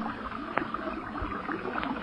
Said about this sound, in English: Sounds like a broken water main, don't it? Water? And there are water marks on these tunnel walls.